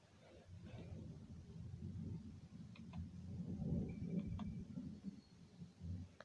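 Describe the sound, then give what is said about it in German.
A video game storm's thunder rumbles low and steady as the storm arrives by a lighthouse, a deep continuous roar that swells slightly midway, with a few faint sharp clicks on top. “Nee, da kommt der, ähm, der Sturm.”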